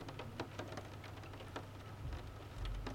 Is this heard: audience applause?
no